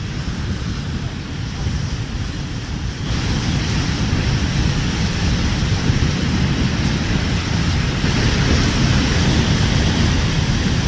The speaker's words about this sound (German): Niagara-Fälle. Krass. Hier kannst du das Wasser rauschen. Aber würde ich jetzt hier ins Wasser springen, wäre ich zehn Sekunden später tot.